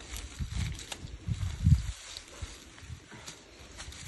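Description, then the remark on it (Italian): Soft, intermittent rustling of a flower wreath being carried to a grave by a man who set out from Kharkiv, Ukraine, with a few fuller crackling swells of leaves and stems amid quieter shuffling, fairly low in level, with no talking. “Gli altri rumori che sentite, mm, che sembrano il rumore delle foglie mosse dal vento, sono invece il rumore di una corona di fiori”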